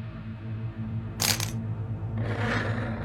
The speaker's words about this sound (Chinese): 不是，清脆的金属声落地，然后拖着发出刺耳的轻微摩擦声，就像钉满钉子的赤裸脚掌落在地面的声音。